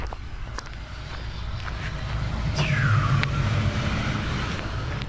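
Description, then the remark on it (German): A tram rumbles past in Mahlsdorf Süd, a steady low drone swelling in the middle with a squealing wheel screech sliding downward, plus scattered clicks and clatters over street ambience. “Jetzt hört ihr gleich Straßenbahngeräusche und danach hört ihr die äh, kleine Story.”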